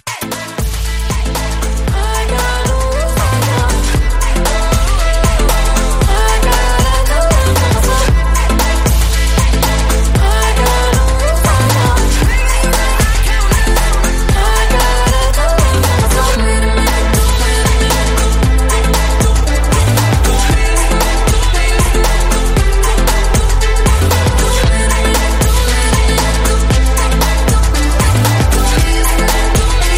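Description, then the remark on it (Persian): A loud, continuous stretch of music with a steady beat, a heavy low bass line and dense layered instruments, playing full throughout with no talking over it. “بچه اگه کسی حرفی نظری نقلی نداره بریم یه موسیقی گوش بدیم و دوباره برگردیم”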